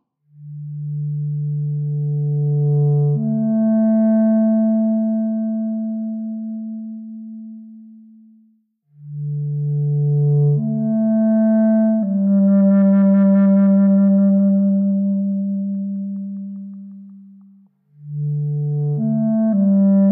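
A solo clarinet plays slow, long-held low notes in three sustained phrases, each separated by a brief pause for breath, steady with no accompaniment or voices: a Swedish clarinetist playing his own composition.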